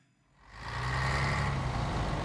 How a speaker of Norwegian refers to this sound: En buss driver av gårde på tampen av rushen i hovedstaden. Sjøl en dag i fellesferien er nesten alle seta i bruk.